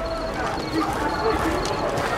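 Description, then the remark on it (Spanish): A horse's hooves clop steadily over a constant bed of outdoor noise, with faint murmuring voices in the background. “Hola, caballito.”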